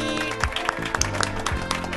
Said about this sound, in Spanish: ¡Ay, aplauso para mí!